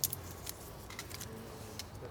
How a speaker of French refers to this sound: On peut froisser, on peut froisser, euh, froisser les feuilles.